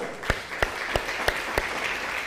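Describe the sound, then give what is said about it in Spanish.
A crowd applauds steadily, a dense wash of clapping with a few sharper, evenly spaced claps standing out over the first second and a half. “Aplausos bien fuertes, aplausos bien fuertes.”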